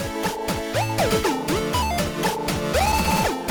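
A dense electronic synthesizer tone sweeps up and down in pitch, its phrases echoing back in quick repeats that stack into a busy, layered wash, steady and fairly loud throughout with no voices.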